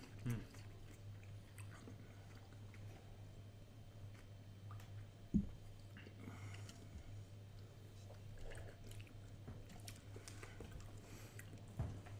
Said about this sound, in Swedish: Där så, nej, här får man tugga man lite på sillen. Mm. Mm. Decembers första sill.